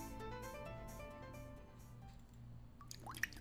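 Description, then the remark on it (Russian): A low, sustained droning tone hums steadily, then a couple of bright water drips plink near the end, short and wet-sounding. “Вода. Жидкость без цвета, запаха и вкуса.”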